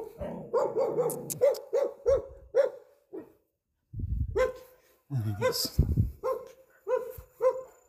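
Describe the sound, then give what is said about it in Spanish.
A dog barks repeatedly in loud, uneven bursts, pausing briefly before breaking into another run of sharp barks. “no ladres.”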